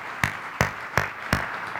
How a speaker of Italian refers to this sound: Va bene, brava, un applauso.